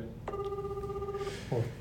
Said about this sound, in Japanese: 電話聞きましたね。はいちょっとこれあれですね過ぎてますね まあちょっと電話かかってくるの遅かったんで